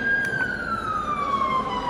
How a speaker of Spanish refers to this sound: Viene, va pasando una ambulancia